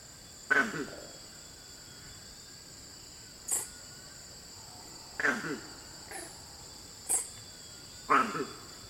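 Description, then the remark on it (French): Campbell's mona monkey, a West African monkey, calls in about six short, sharp bursts spaced irregularly apart, standing out over a steady, high-pitched hum of insects in the background. “un singe, et plus précisément une mône de Campbell.”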